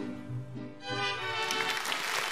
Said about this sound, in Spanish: Así le mandamos un gran aplauso